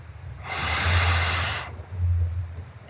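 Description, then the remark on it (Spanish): A single long, deep breath drawn in during a guided meditation, an airy hiss lasting about a second, followed by a soft low rumble and quiet. “Ahora solo cierra los ojos. Inhala.”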